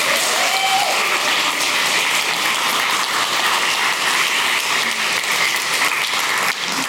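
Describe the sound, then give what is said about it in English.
A crowd applauds the speaker's mother and father as they come up, a dense, continuous patter of many hands clapping at an even loudness for several seconds, with no talking over it. “Give my mom and dad a hand, if you will.”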